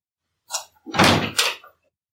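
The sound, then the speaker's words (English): A door being unlocked and opened inwards by pulling its knob: a sharp latch click, then a fuller rattling thud and scrape as the door swings, moderately loud, with no voices. “The door opened inwards as Sham pulled the knob.”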